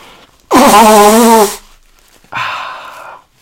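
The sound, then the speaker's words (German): Someone blows their nose hard into a tissue: a loud, honking blast lasting about a second, then a shorter, softer second blow. No one speaks. “So, jetzt muss ich mir mal ganz kurz die Nase putzen.”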